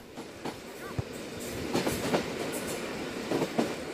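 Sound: train riding on rails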